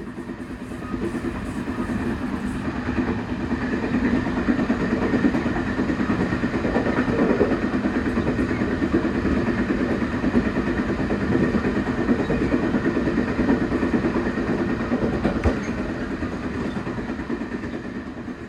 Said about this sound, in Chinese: 火车驶离金仑车站之后，进到了南回线东部的最后一段路程。